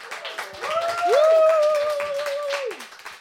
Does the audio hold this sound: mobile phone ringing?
no